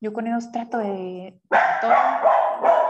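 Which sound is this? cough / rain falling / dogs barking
dogs barking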